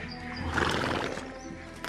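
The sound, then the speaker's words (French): A horse whinnies loudly, its cry peaking early and trailing off, while hooves clip-clop steadily underneath; no one speaks. “Attelez les chevaux, dépêchez-vous.”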